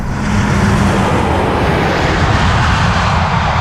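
A large passenger jet roars past as it lands on the runway at an airport, a loud, steady wash of engine and rushing air noise that fills the whole moment, with no voices.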